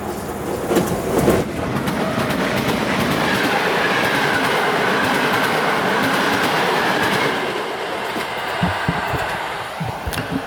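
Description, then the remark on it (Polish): An Intercity passenger train rushes past, a loud sustained roar with rhythmic clickety-clack of wheels over rail joints, swelling and then easing as the cars go by. “mniej więcej jak ten pociąg przejeżdżający właśnie e, Intercity, to, to, to jest taki, taki jazgot, to jest takie cały czas gadanie.”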